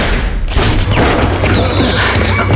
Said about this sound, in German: Los, wir müssen uns beeilen! Den Schuss hat bestimmt jemand gehört!